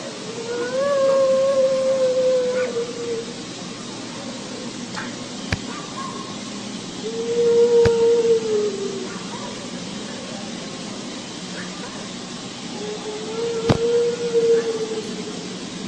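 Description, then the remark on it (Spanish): A recording of dogs howling is played: long, drawn-out wails that rise in three separate waves, slightly muffled over a steady background hiss, with a few sharp clicks in between. “Es el, es el mismo. perros, Sí, en, un momento dado, en un momento dado podría ser la, el mismo lamento”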